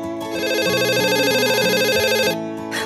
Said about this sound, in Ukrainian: мене дзвонить телефон.